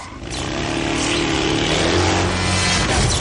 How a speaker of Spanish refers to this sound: El profesor huye de Ángel en una moto.